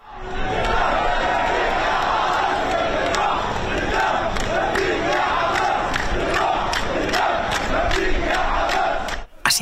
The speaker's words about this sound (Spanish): celebraban en las calles de Cisjordania la vuelta a casa de uno de los palestinos presos.